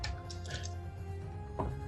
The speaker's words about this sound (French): Et à ce moment-là, euh, je vais lancer quelques petits dés, juste pour être sûr.